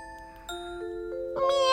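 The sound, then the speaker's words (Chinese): A cat lets out a single bright, rising meow at the end, preceded by a few steady, stepping chime-like tones. No one speaks. “平时我听不懂猫的话，不过今天的我竟然听得懂。”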